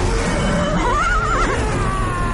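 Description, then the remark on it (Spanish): A horse lets out a single wavering whinny lasting under a second, rising and shaking in pitch, over a constant loud rumbling din of battle as Viking ships ram the Pechenegs, crushing horses and riders. “los barcos embisten a los pechenegos aplastando a caballos y jinetes.”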